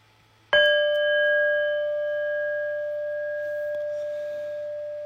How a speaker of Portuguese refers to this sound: Então, daqui a uns segundos eu vou convidar o sino a soar, mas não precisa se mexer correndo, não.